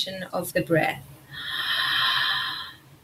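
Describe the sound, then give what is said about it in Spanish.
A short, low voiced sound from one person, followed by a long, steady breath. It is a single deep breathing demonstration with no other voices: a deep inhale, then a low sound made while exhaling, as if breathing toward the genitals. “toma una inspiración profunda y mientras exhalas, haz un sonido bajo, como si respiraras hacia tus genitales.”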